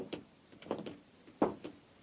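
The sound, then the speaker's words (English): The heavy metal door of an airtight metal chamber opens with a series of dull clanks and thuds, the loudest coming about two-thirds through, against a quiet, slightly hollow background. “The only exit is the door we just came through.”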